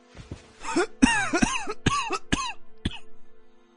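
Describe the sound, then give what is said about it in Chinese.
A violent fit of coughing from an old man of nearly sixty after he drinks ice-cold mountain spring water from a golden spoon in the mountains: about eight or nine harsh, rasping coughs in quick, uneven succession, loud at first and easing off toward the end, with no talking. “一口气儿把金勺里的泉水喝完，之后便猛烈的咳嗽起来。”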